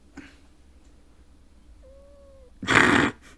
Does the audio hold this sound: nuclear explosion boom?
no